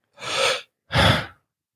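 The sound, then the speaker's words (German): Two audible breaths: a noisy inhale followed by a slightly stronger exhale, each lasting about half a second with a short pause between, no talking. “Die sieht man vor allen Dingen, wenn man einer Person vorbeischaut, sieht man sehr, sehr, sehr gut, wann die Person einatmet bzw. wann sie ausatmet.”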